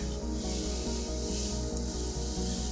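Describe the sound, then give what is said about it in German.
Hands rub steadily over a sheet of paper, tracing its surface to feel its texture, producing a continuous dry, papery swishing with a quick, even back-and-forth rhythm. It stays at a moderate level with no voices. “deine Hände auf das Papier und fährst einfach mal die Oberfläche ab.”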